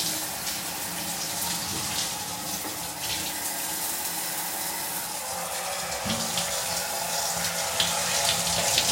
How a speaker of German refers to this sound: Ja, dann wollen wir mal rein. Dusche an. Und los.